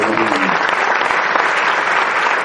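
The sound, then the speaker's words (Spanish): A crowd claps steadily in a dense, continuous wash of applause that holds at an even loudness throughout, with a brief trailing voice tone at the very start. “Un aplauso por haberme apoyado.”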